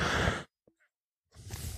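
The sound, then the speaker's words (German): A short, harsh cough bursts out, goes silent for almost a second, then a second rough, breathy cough-like burst follows. Both are fairly loud, with no talking. “Ich muss kurz husten.”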